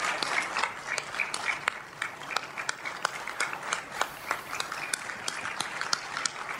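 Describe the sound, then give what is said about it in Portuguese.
Sustained applause at the Supremo Tribunal Federal just after the showing of a video at the opening of the judiciary, many overlapping claps forming a dense, steady patter at moderate loudness, with no voices standing out. “As palmas elas continuam no Supremo Tribunal Federal logo depois da exibição desse vídeo.”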